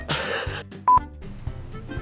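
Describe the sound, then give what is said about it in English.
Two quick electronic beeps from mobile phone buttons being pressed as the phone is silenced, sharp, standing out briefly against a low, murky background hum. “Shut off your phone, phone during for the podcast, man.”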